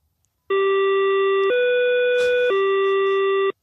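A Berlin S-Bahn door warning tone: three loud, steady electronic beeps, each about a second long, stepping low, higher, then back to low, with no talking over it.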